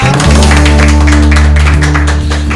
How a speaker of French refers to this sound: Bon, bah très bien, je pense qu'on peut applaudir effectivement.